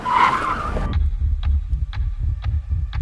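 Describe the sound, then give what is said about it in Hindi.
A car brakes hard with a short, loud tire screech lasting under a second, then cuts off into a low rumble with steady, evenly spaced thumps like a pounding heartbeat. “विक्रम का दिल तेजी से धड़कने लगा और तभी उसने बड़ी तेजी से गाड़ी को ब्रेक मारी”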